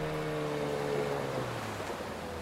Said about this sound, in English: Look, it's Kai's boat. Kai, Kai, are you there? There's no one on the boat. But his dive flag is up.